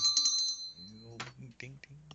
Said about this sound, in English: I miss those little doorbells that they had on the doors. I, think I've only seen six of them in my life or something, but but but I you know it's something you go. It's so quaint. You always remember it.